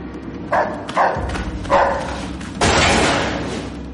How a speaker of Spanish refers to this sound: Un perro se escapa por la puerta.